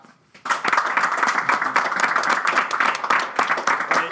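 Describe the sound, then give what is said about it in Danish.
Audience members clap to vote in answer to a question, the clapping starting abruptly after a brief quiet moment and continuing as a steady, dense patter of many hands at fairly even loudness until the end. “De af jer, der ikke klappede, hvad tror I, det var?”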